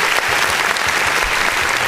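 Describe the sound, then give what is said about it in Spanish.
Steady, dense applause from many hands, a continuous crackling wash of clapping that holds at an even, fairly loud level for the whole couple of seconds. “Un aplauso, por favor.”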